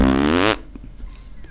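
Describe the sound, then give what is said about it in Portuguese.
A voice imitates a ripping fart of the kind called a 'rasgatira', with a loud, buzzy raspberry lasting about half a second, then cuts off abruptly into quiet background noise with a few faint clicks. “Porque e, e é no trem que você conhece os tipos de pum que existe. Por exemplo, tem um rasgatira que faz.”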